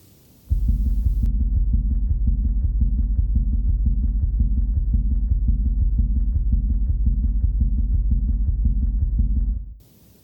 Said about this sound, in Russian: Теперь маленький шуточный бонус. Немного фантазии саунд-дизайна, на тему тонов трепетания предсердий. Представьте себе, так тоны трепетания предсердий можно было бы слышать в полости правого предсердия с поверхности эритроцита.